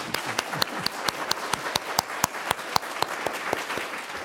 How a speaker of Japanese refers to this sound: 今日このクリスマスの礼拝に来れてよかったなと思う方は大きな拍手をイエス様にしたいと